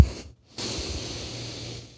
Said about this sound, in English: So let's take a little breathing break, a little breather. I'll breathe in deeply.